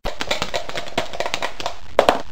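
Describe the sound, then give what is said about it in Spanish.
Dice rattle and clatter in a quick, irregular series of sharp clicks, ending with two louder knocks as they settle. No voices are heard. The dice are rolled to choose a discussion theme and come up six. “un dado nos va a dar el enfoque y el otro nos va a dar el tema”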